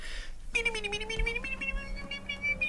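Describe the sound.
In a studio, a man's voice lets out a long, sustained wailing cry with a rising, quavering pitch, imitating a sobbing, professional crying clown in an exaggerated, almost cat-like howl, fairly loud.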